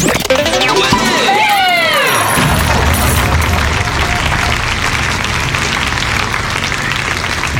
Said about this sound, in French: J'adore ce jingle. Il me fait délirer. Je sais pas vous, mais moi j'adore. C'est ridicule, mais j'aime bien.